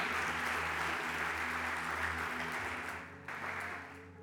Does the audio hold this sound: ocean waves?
no